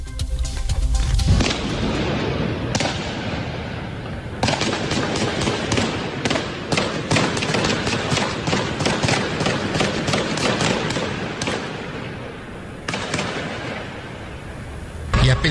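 Sustained gunfire in a shootout at a plaza: rapid, overlapping bursts of loud sharp shots crackling almost continuously, with a few heavier booms, and voices faintly mixed underneath.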